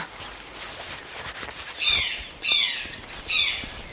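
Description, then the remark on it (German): Three harsh, raspy screeches of a Eurasian jay ring out in quick succession, each a short grating burst, against a quiet outdoor background with faint rustling. “Ha, den Ruf kenne ich. Das war ein Eichelheer. Das ist dieser hübsche rotbraune Vogel.”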